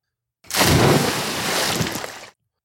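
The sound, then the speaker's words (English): A single heavy, loud splash as a horse with a rider dives from a 60-foot tower into a shallow tank of water, with a churning rush of water that lasts almost two seconds before cutting off. “he never saw one leap from a 60 foot tall tower and into a shallow tank of water with a rider pressed to its back”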